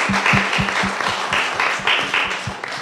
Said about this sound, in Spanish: Y ahí me coroné la primera vez como campeona del mundo en Japón. Wow, hay que darle un aplauso por eso.